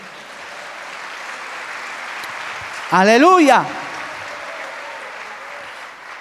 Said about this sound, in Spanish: Bueno, dale un aplauso por lo menos al Señor, hermano.